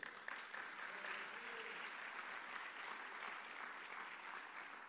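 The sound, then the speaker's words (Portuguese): Steady applause from an audience giving glory to God, a dense wash of many hands clapping at an even level for several seconds, with a few faint voices mixed in underneath. “Dá um glória a Deus, aplauda ao Senhor”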